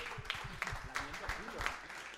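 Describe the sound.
An audience breaks into steady applause, a dense wash of clapping with sharper claps popping out, while voices murmur and call out underneath throughout.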